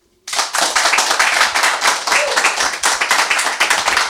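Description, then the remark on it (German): A crowd of fans present claps and applauds loudly to welcome two guests, the dense patter of many hands starting abruptly and holding steady for several seconds. “Ich werde gleich noch mehr zu den beiden sagen und wenn äh, die beiden begrüßt werden von den anwesenden Fans, dann klingt das so.”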